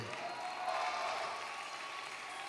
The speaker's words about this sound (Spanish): Si es un aplauso de lo bueno, de lo bueno, de lo bueno que lo suyo ya se sabe.